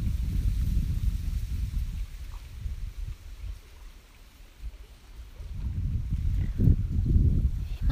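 Low, rumbling wind buffets the microphone while lake water laps and washes at Lake Shikaribetsu, swelling strongly at the start and again near the end with a calmer lull in between; no voices are heard.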